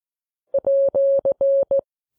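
Morse code beeps for the @ symbol: six clean, steady-pitched tones, short, long, long, short, long, short, played crisply and alone with no talking.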